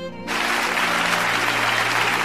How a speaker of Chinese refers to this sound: 让我们以最热烈的掌声，再次感谢廖教授的精彩分享，